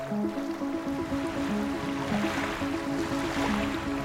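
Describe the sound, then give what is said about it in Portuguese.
Ocean waves wash in a steady, continuous roar, with a soft sustained musical drone humming underneath. No one speaks. “Feche os olhos agora e vamos imaginar o oceano.”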